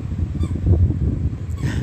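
A squeaky toy gives a few honking squeaks over a low rumbling background with no one talking.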